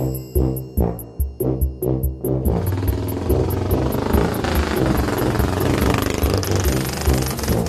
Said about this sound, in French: Avec Granado, ils montent sur une vieille moto déglinguée. Et voilà nos deux copains, cheveux au vent, qui partent pour un road trip à travers l'Amérique latine.